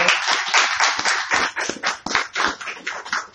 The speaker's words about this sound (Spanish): ¿Cuántos damos palmas al Señor por eso?